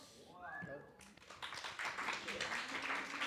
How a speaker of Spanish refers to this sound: Aplausos.